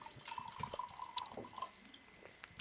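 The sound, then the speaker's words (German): A drink is poured to refill a glass: a steady, gurgling trickle of liquid with a thin ringing tone, broken by a few splashy drips. No one speaks. “Nur ganz kurz, während wir uns das Glas wieder schön voll machen.”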